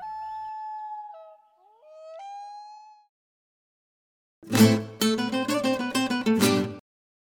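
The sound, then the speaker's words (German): A wolf howls in long, wavering tones that slide up and down, then a harsher burst of rough, rapid yelping cries follows before it falls quiet. “Ich höre einen Wolf, yo oigo un lobo.”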